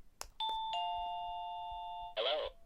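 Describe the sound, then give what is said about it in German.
An electronic doorbell-style chime, triggered by pressing a remote control, plays two sustained notes, a higher tone followed by a lower one, ringing steadily for over a second after a couple of button clicks, then ending in a brief rustle. “Und ich drücke da jetzt mal drauf, dann werdet ihr nämlich hören, was wir damit machen können.”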